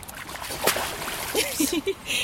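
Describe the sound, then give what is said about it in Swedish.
A quick splash of water bursts out onto people, followed by a few short vocal sounds and soft watery noise in the background. “Som det fick vi vatten på oss.”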